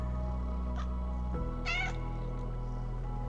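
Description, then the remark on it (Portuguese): Sleepy cats curled up on a cushion purring in a steady, low rumble, with a brief higher cat cry rising over it midway through. No one speaks. “Inspira, expira, com o ronron dos gatos ensonados.”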